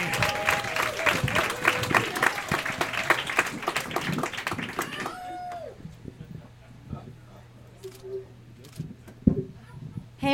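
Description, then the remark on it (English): An audience at a Perfect Liars Club storytelling show claps steadily and warmly with a few whoops to welcome the next storyteller, then the applause cuts off about halfway through, leaving quiet with faint hum and scattered small noises. “Give it up for our next storyteller,”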